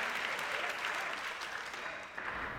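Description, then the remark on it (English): Steady audience applause for director Rian Johnson at an August 2014 interview, a dense wash of many hands clapping at an even level throughout, with no voices rising above it. “Lots of applause. Can you hear it coming through the mic there?”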